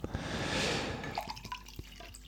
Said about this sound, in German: So, jetzt habe ich das hier in ein mm. Glas mm. umgefüllt und gieße es jetzt mit frischem Sprudelwasser auf.